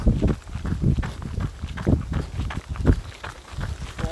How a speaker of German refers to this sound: der Wind ist stark. Ja, der Wind ist wirklich angenehm. Jetzt leider gerade von hinten kommt, aber trotzdem ganz angenehm runterkühlt.